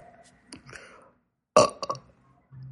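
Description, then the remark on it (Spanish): A single loud burp erupts after a quieter gurgly start, with a brief rumbling tail and low background hum afterward. “Un gasecito.”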